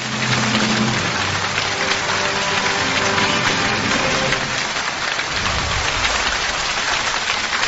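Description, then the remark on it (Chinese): Steady, dense applause from an audience welcoming Lin Qingxuan to begin his lecture, a loud crackling wash of many hands clapping that holds evenly for several seconds with no voices. “掌声有请林清玄先生开讲。”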